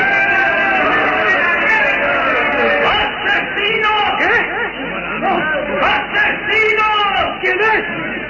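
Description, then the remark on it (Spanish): A loud, dense crowd of voices shouts and clamors all at once, overlapping yells and calls forming a continuous, agitated din that stays full throughout. “Los gritos y voces bajaron de intensidad.”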